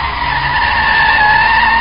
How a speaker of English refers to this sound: Then, I heard the sound of a speeding vehicle coming toward the sound of the dog's bark. The wheels of the vehicle squealed